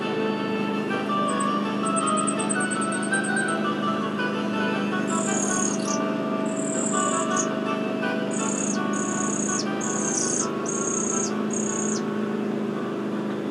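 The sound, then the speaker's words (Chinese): A flamecrest, a common high-altitude bird of Hehuan Mountain, sings thin, very high-pitched notes: first a rapid, even trill, then a series of short, bright repeated phrases with brief pauses between them, over a steady low background hum. “与火关戴菊鸟，是合欢山常见的高海拔鸟类，它们让许多赏鸟人深深着迷，不远千里，只为目睹它们的风采。”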